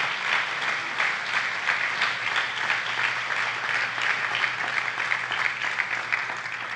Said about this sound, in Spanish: démosle una ofrenda de palmas al rey.